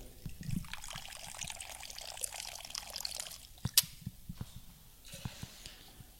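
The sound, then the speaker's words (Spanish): White rum pours steadily into a large cocktail shaker already holding water and sugar for about three seconds, then a sharp clink follows and a few lighter knocks and drips trail off. No one speaks. “Una vez que tenemos ya incorporado otra vez lo que es el agua y el azúcar, lo que vamos a hacer es agregarle ron ahí superior, once y media.”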